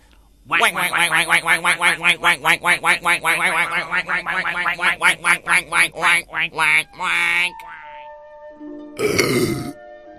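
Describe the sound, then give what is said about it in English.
A loud burst of rapid duck quacking, dozens of nasal calls in a fast rhythmic series, followed by a brief pause and one final harsh squawk. “what do the Ducks of Judgment think of G Man's podcast?”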